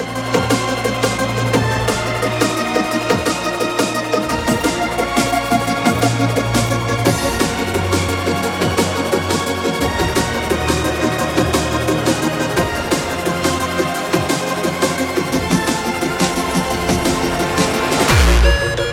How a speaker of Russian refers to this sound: Ована, вот это звуки на Generation Zero. Хардкорчик учитывая, что микс гостевой,